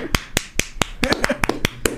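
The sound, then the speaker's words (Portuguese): One person claps hands about a dozen times in quick, slightly uneven succession, applauding himself, the sharp claps loud, with faint voices murmuring between them. “Caralho, eu achei que ia ser preso, tô me aplaudindo.”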